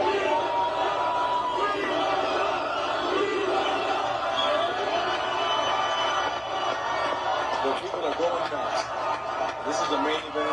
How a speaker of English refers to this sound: That's what everybody's saying I don't think you hear that back home. Everybody screaming right now.